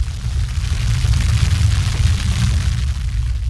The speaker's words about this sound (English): You hear that? That's the sound of your roots growing where they've never gone before.